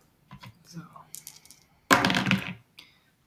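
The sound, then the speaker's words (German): Dice are rolled onto a Monopoly board, Münster edition, in one fairly loud clatter lasting about half a second, preceded by a few light clicks and handling sounds; the roll is a six. “Ähm, wir wollen auch noch ein bisschen Monopoly spielen, also würfel doch noch mal eine Runde.”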